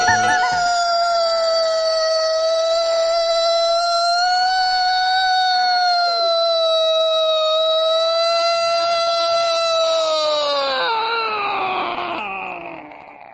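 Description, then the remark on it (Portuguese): A loud wailing siren, the siren of Olímpia, Brazil, holds a steady, slightly wavering high tone for about ten seconds, then slides downward in pitch as it winds down and fades. No one speaks. “É a Sirene de Olímpia, besta!”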